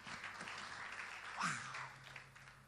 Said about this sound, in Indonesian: Khotbah berhasil. Tepuk tangan buat Yesus sama-sama saudara.